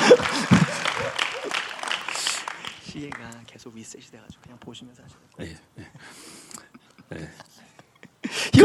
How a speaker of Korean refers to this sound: 네. 이건 뭐 못본척할 수도 없고 박수 한번 쳐드려야 될 것 같은데요.